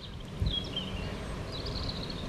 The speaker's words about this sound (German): Hello, du hörst es bestimmt schon im Hintergrund. Zwitschern die Vögel. Ähm, ich glaube, man hört bestimmt auch ein Motorrad. Ähm, man hört die, die Äste im Wind rauschen.